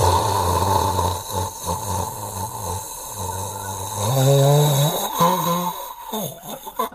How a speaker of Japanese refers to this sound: なんかすごい長いいびきかいてる時あるでしょだからカーカーって俺その吐いても吸ってもいびきかくじゃない、吐く時からなんかカーって吸って